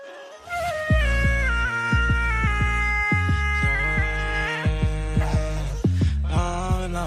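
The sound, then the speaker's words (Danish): A dog howls in long, wavering, rising and falling tones over music with a steady thumping bass beat, loud throughout, with no talking. “Det var en hund, der synger bedre end ….”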